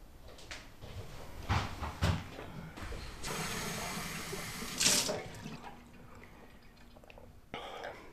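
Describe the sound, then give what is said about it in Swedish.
A tap runs steadily for a few seconds, water pouring into a glass, framed by clinks and a cupboard knock before and after. No one speaks. “mycket vatten ska man dricka.”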